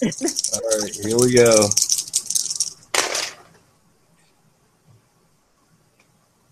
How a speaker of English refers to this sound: With you, you definitely distracted by the, the shaking box sound you're hearing.